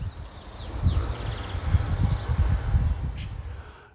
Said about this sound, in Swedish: Uh, eh, no, där sjunger åtminstone en grönfink i, i, i högen mm. och bland motorljuden. Sen finns det bofink där i bakgrunden.